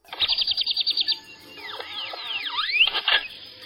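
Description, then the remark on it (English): A great-tailed grackle calls: a fast run of about a dozen clicking chips, then loud rising and falling whistles and harsh squeaky notes, with no talking. “Our bird is the great tailed grackle.”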